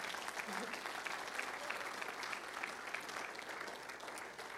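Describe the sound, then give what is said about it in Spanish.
An audience claps loudly and steadily toward the Lord, a dense wash of many hands for several seconds without pause, with faint crowd murmur mixed in. “Apláudele fuerte hacia el Señor.”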